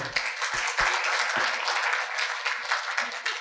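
An audience applauds steadily, a dense patter of many hands clapping at once, holding a fairly even loudness for a few seconds with a few heavier claps standing out early on.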